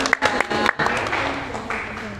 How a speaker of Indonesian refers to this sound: Oke, Mia kasih tepuk tangannya dong buat